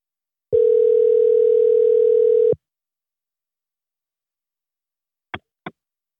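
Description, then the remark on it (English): A loud, steady telephone dial tone hums for about two seconds and cuts off as a call is placed, followed by a few seconds of silence and then two quick, sharp clicks close together. “okay bear with me okay Let me see if I can get her on the phone.”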